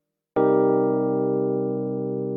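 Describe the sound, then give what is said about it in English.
A piano plays a single C minor 7 chord from a song's chorus, struck once and left to ring with a slow, even decay. It sounds clear, with no voices. “The chorus is in E flat major 9, then a C minor 7”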